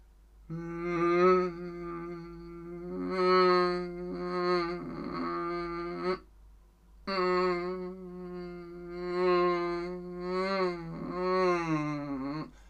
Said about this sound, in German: Hört ihr das? Das ist natürlich eine Biene in dem Fall die Cheddarbug-Biene.